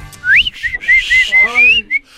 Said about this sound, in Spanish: Cuando paso por tu casa y te chiflo.